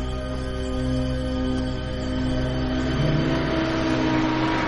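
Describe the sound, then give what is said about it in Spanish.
A bus engine drones steadily as the bus pulls away from a man who has just got off and fades into the distance on a dark road through meadows. A low layered hum whose pitch wavers and rises slightly midway, with no voices present. “El autobús se aleja del hombre y se pierde en la distancia.”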